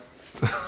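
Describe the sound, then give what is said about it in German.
A single short fart blasts right up against the microphone, a low, blunt burst that trails into a brief rougher tail after a moment of near-silence. “Viele nicht wissen, das war ein Furz.”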